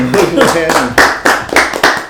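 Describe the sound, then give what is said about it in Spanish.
Applause of steady, rhythmic clapping, loud sharp bursts about three per second. Voices talk over the first half before the claps take over. “Pues con estos aplausos nos vamos a una rodita más y estamos de vuelta para seguir en este viaje con música para volar.”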